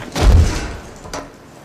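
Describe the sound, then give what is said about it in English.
A door opens with a heavy thud and rattle, then a fainter click moments later as it settles. No one speaks. “Where's this door? Ah, here we are.”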